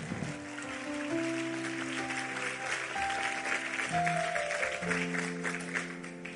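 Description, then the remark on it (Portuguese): An audience at a church service claps for the Lord steadily in a dense, continuous wash of applause, while sustained keyboard or organ chords hold underneath and shift pitch every second or so. “Aplauda o Senhor então, meu querido.”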